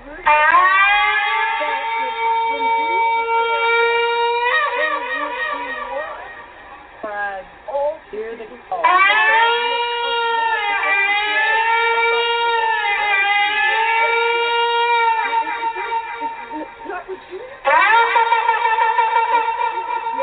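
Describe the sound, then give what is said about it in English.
A shofar, a ram's horn, blows loud, brassy, buzzing blasts: a long sustained note, a run of short broken calls, another long wavering blast, then rapid staccato bursts at the end. No one speaks. “a shofar is, so here we go”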